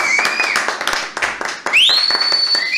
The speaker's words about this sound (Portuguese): E, gente, nós temos a honra e o privilégio de receber aqui pastor Luciano Subirá. Quero muitas palmas.